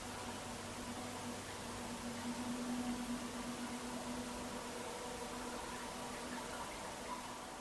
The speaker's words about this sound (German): Du hörst das sanfte Plätschern des Wasserfalls.